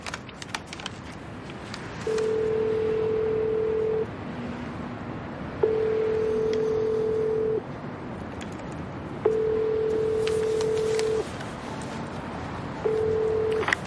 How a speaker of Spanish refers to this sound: En el patio del Congreso ya de día, Tejero usa el teléfono por radiofrecuencia de un coche patrulla. Marca un número.